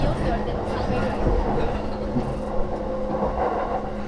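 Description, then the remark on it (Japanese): Steady rumble of a Yamanote Line commuter train in Tokyo, Japan, running on rails near Yoyogi Station, continuous, with a faint hum and occasional clicks of wheels over track joints. “Viajando en la línea de tren Yamanote.”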